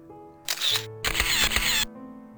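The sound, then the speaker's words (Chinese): A phone camera shutter fires twice in a hotel room: a short, bright click-burst followed by a longer, crisper snap, with a low steady hum underneath and no voices. “刘佳严肃的叫徐斌不要拍，并伸手夺徐斌的手机，却被徐斌一手甩开。”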